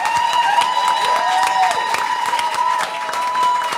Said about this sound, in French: Donc, si on peut les applaudir chaleureusement, les gars.